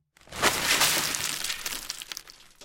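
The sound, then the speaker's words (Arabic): A sack of corn rips open as it is set down on the floor of a hut, and corn kernels spill across the floor in a dense, rattling scatter of tiny clicks that gradually thins out over a couple of seconds, fairly loud. “وما إن وضعته على أرض الكوخ حتى انقطع وتناثرت حبوب الذرة في كل مكان”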